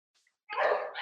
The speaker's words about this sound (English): sorry if you hear dogs like barking in the back